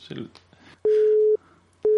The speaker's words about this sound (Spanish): Está comunicando. Comunicando. Pues nada.